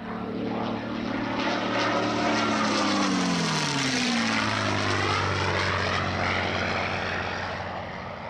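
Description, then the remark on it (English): A P-51 Mustang propeller fighter's engine roars loudly and steadily, its pitch bending downward as the plane sweeps past, a classic fighter flyby with a deep throbbing drone. “That was a P 51 Mustang.”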